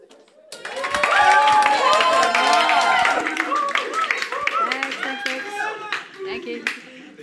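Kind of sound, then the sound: crowd, audience clapping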